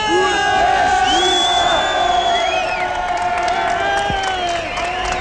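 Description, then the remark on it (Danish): A large crowd of demonstrators protesting against the new government chants and shouts together, many voices blending into a loud, continuous roar with rising and falling cries that never let up. “er her for at demonstrere mod den nye regering og øh, dens form.”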